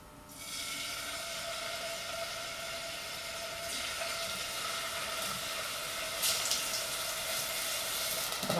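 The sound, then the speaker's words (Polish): Chicken meat seasoned with salt and pepper sizzles steadily in a hot pan, a dense, crackling hiss that starts after a brief quiet moment and holds at an even, fairly loud level throughout, with no voices. “Oczywiście trzeba uważać, żeby się nam nie przypaliło, więc kiedy tutaj ten dźwięk takiego smażenia będzie taki bardziej ostry, należy zdecydowanie przemieszać”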